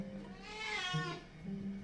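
A cat gives a single drawn-out meow, close by and fairly clear, rising and then falling in pitch over about a second against quiet background hum.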